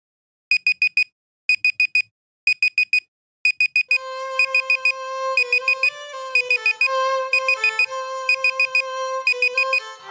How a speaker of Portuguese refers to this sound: Relógio